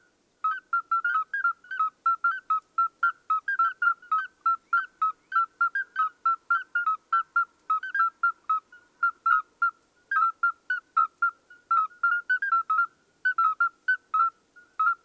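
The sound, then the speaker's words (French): Midwife toads calling: a steady series of short, pure, bell-like piping notes at a mid-high pitch, several callers overlapping in a fast, regular rhythm, with no voices. “crapaud accoucheur. Alors là, c'est une espèce qu'on peut entendre dans, beaucoup d'endroits en France.”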